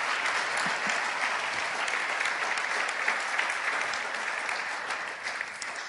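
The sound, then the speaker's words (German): Steady audience applause fills the whole stretch, a dense, even wash of many hands clapping at a fairly loud level, with no voices breaking through. “Toller Applaus, vielen Dank.”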